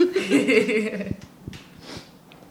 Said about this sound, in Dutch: Zo'n klein hapje moet je echt lang op kauwen. Ja, want het echt vol met noten zit. Vandaar, ja. En het is ook best wel hard, dus je moet echt lang kauwen, ja.